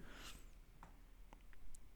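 Dice rattle briefly and then tumble to a stop with a few light, scattered clicks, quiet, with no voices.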